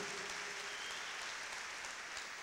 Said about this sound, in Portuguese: Se é para Jesus, não fica com vergonha, você pode aplaudir, não tem problema, é para Ele.